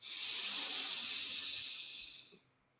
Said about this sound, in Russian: Вот точно так же сейчас вдох, прям сверху, снизу поток втягиваем.